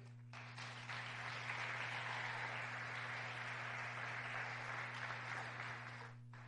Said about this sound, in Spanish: Aleluya, démosle palmas al rey.